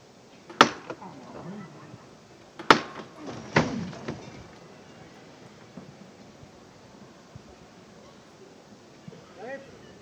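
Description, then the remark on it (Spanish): Three loud, sharp metallic knocks from the llamador (knocker) of a Holy Week pallium float (paso de palio) of María Santísima Madre de Dios ring out over the first few seconds, with a longer gap after the first, followed by a low murmur of voices. “Vuelve a caminar el tramo de Hermanos de Luz que va acompañando a María Santísima Madre de Dios y se oye de nuevo el llamador de este paso de palio.”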